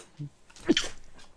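A single short sneeze, a sharp breathy burst with a hissy top, rising from a quiet background and trailing off into soft breath. No one speaks.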